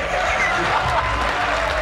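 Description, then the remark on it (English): A large crowd applauds, a dense, steady wash of clapping that stays loud and even for about two seconds, mixed with a murmur of voices. “I'm a little confused why there's a huge room full of people at No, the end who are are applauding this this uh, party line”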